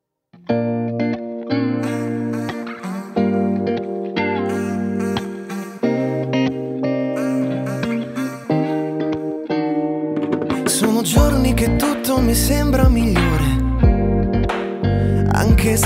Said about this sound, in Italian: sono molto felice di questa canzone molto leggera e sono felice di ascoltarla ascoltiamola anche noi